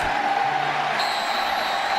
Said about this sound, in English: Listen to the crowd.